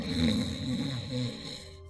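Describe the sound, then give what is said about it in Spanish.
A person imitates snoring with their voice, as of a woman in deep sleep who is writing: a rough, rumbling snore drawn out in a couple of pulses over about two seconds, with no other talking. “O sea, estás hablando de una persona que está haciendo la acción de escribir y casi que está roncando, ¿sabes?”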